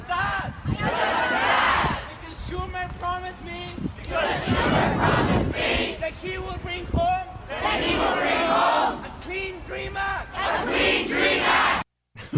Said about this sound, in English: they're outside of Schumer's house chanting